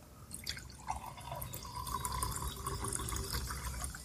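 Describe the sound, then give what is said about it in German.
A drink is poured into a glass, a steady gurgling trickle with splashy, bubbling detail that carries on for several seconds without any talking. “Das hast ein bisschen zu voll gemacht, mein Glas.”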